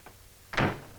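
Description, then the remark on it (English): A door opens with a faint click, then shuts with a single loud thud that rings briefly before fading. No one speaks. “We're going to see a number of scenes of people admiring themselves in mirrors, but not as often as we're going to hear doors slamming.”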